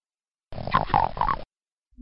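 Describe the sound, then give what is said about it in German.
A frog's call used as the sound of the Imp, a brown enemy creature in a game: one rough, guttural croak lasting about a second, with a warbling, growl-like tone, followed by silence and a brief low rumble. “Das ist tatsächlich ein Frosch.”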